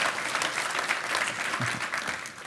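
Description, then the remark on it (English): A crowd claps steadily and densely, a sustained wash of applause from many hands with faint cheering mixed in, filling the space at a fairly even level throughout. “Come on, make some noise.”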